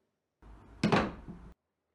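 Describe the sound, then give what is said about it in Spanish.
A brief low scrape or shuffle, then a single solid thunk as a chair is lifted and set down hard on the floor, fairly loud, ringing briefly before cutting off. “Si la levantas y la dejas nuevamente en el piso, suena así.”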